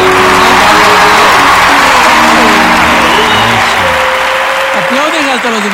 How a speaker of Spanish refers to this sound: ¡Aplausos!